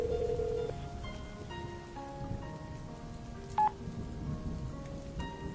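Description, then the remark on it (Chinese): Phone tones of a call to Xu Feng, rung again and again and never answered, sound over a steady rain-like hiss, with one short, louder beep partway through and no voice on the line. “他郁闷地坐在沙发上，开始给徐峰打电话，一遍遍的电话，那一端却始终没有人接。”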